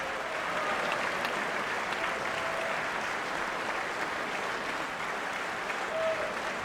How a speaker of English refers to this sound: Here is right now, right here in the State of the Union. You can tell I'm stalling the 45th President of the United States of America, Donald J. Trump. Let's see if this applause ever fades so I can just get on with the intro.